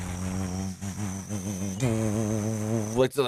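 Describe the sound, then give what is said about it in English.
A voice imitates Don Callis's new wrestling entrance music as a buzzing drone, a continuous nasal hum that wavers up and down in pitch for about three seconds, steady in loudness, with a brief break near the end. “It was just some like buzzing.”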